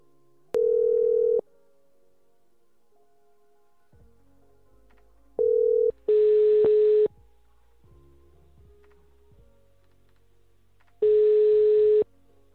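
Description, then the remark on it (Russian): A telephone line's tones as the ruscable.ru weekly show dials the phone number of a winner of a Marpasad Kabel contest: a steady dial tone, then a ringback tone repeating as long, even beeps separated by pauses of several seconds, fairly loud and clear, with no one speaking. “Ну вот ему сейчас и наберем. Обрадуем. Так, набираем номер.”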